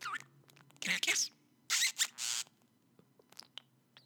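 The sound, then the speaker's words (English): A pet bird squeaks and chirps in loud, raspy bursts, a couple of longer squawks followed by short, sharp chirps, with quiet gaps in between. “Now, to be fair, I'm only considering concerned with what the bird thinks of me. And right now, he wants to eat my eyes.”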